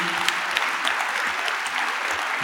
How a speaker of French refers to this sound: Applaudissements pour Jean-Marc Torolion. Merci.